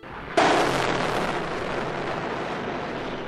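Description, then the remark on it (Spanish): A single heavy explosion bursts in suddenly and loudly, then a broad rumbling roar lingers and slowly fades, like a bomb blast echoing, as warplanes attack the Palacio de la Moneda, playing from a tablet. No one speaks. “Los aviones siguen atacando al Palacio de la Moneda. Ese ruido interrumpe sus pensamientos.”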